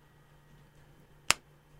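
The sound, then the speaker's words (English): A single crisp finger snap rings out against a quiet, faintly humming background, sharp, with nothing else happening before or after it. “So all the time, every anytime you can snap your, your fingers, someone's being killed in the name of Islam somewhere in the world.”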